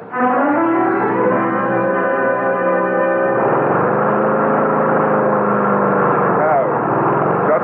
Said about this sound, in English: Yeah, just mowing the lawn, Mr. Hardy. Gets real shaggy.